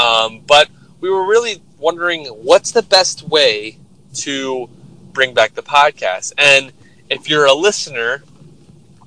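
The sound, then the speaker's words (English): A steady low rumble, like a car's engine and road noise from inside the cabin during a morning or afternoon commute, hums continuously beneath a person talking throughout. “if you hear some just kind of like background noise, like just constant, kind of like sounds like someone driving, yeah, that's because we are”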